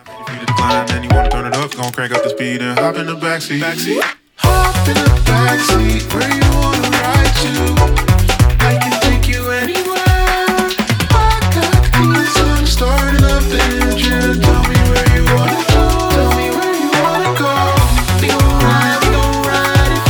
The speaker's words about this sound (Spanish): y en realidad aunque su voz sí que remite, digamos, a la tradición más o menos soul, más o menos arambí, aunque esté un pelín modernizado, el sonido, la música como tal, es más bien eh, pues pop sintético, ¿no? Esto es synth pop.